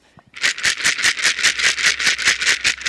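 A hollow feed ball filled with dry feed pellets, which fall out through its holes, is shaken rhythmically, producing a steady series of bright rattling bursts, about five per second, loud and alone without any voices.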